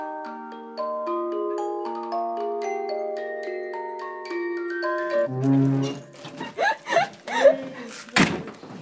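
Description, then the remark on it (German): The entrance door of a school is opened after a few seconds of sustained chiming tones, with creaks and rattling movement followed by a sharp knock or thud near the end. “Jeden Morgen um 8 geht diese Tür auf und der erste Schüler tritt ein.”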